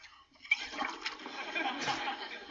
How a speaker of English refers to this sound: I can't think of one good reason, honey, why we shouldn't blow bubbles into our milk. Let's go.